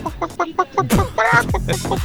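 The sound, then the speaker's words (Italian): A hen, introduced as 'la gallina sculacciata', clucks in a quick run of short, evenly spaced clucks, then bursts into a louder, drawn-out squawking cackle, with no one talking over it. “No, in pratica eh, c'è una nuova collega che si chiama la, la gallina sculacciata, è lei.”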